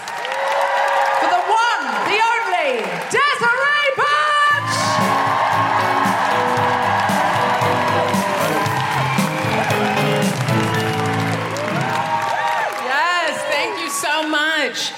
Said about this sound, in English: Put your hands together and make incredible woohooing noises.